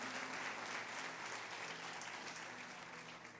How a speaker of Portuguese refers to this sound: Vamos aplaudir os nossos atores aqui, gente. Obrigado.